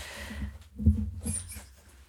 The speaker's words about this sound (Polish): E, przepraszam, bo mój pies zwariował trochę z naszym dźwiękowcem, ale.